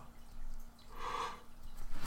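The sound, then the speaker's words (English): A single soft yawn swells in the middle of a quiet stretch, a breathy, drawn-out exhale rising to a muffled mid-pitched peak before fading, with faint background hum and no talking. “sorry, there's a yawn there. Just a little bit of a yawn there.”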